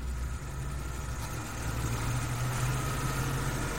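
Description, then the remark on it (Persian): Vehicle engines of motorcycles, cars and buses run with a steady, low rumble and a constant vibrating hum that holds at the same loudness throughout, raising dust and smoke, with no voices or other distinct sounds. “ناگهان دوچرخه موتورسیکلت اتومبیل اتوبوس گرد و خاک را به دود آلودند و دود را به گرد و خاک”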